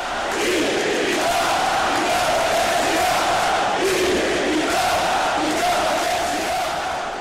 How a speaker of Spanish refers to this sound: Por el estadio pasó la Vía Catalana el 11 de septiembre de 2013 y en estos últimos años se ha vuelto una tradición que en todos los partidos, en el minuto 17-14, parte del Camp Nou se levante y grite.